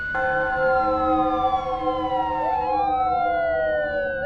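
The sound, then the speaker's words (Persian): The sirens of five police cars wail at once, loud, as they arrive in the yard of a house, their overlapping tones gliding up and down continuously with no voices present. “پنج تا ماشین پلیس اومدن تو حیات”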